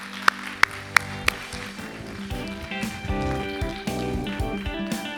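A few sharp, evenly spaced claps ring out, then an audience breaks into sustained, dense applause that builds and holds steady, with some tonal music running underneath.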